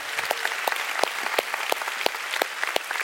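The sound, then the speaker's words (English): An audience at a sermon claps steadily for about three seconds to give God a big hand, a dense patter of many hands with sharp individual claps standing out, fairly loud and with no talking over it. “Come on, go ahead and give God a big hand.”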